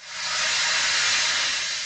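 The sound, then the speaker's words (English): A steady hiss of compressed air streams continuously from a piece of dental equipment, rising quickly and holding even before tapering slightly, with no voices present. It is one of eight recordings combined to make the sound effect of the Millennium Falcon's hyperdrive breaking down. “There was some hissing air from a piece of dental equipment,”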